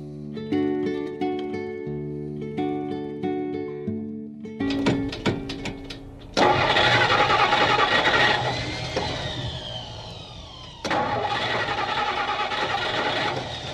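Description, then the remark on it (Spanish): After a sustained musical chord, an old car engine that two men have been working on clatters and sputters through a few cranks, then finally catches with a loud roar, revving up and settling before surging again. “Por fin lo logramos. Oh, parece mentira, ya empezaba a creer que nunca iba a arrancar.”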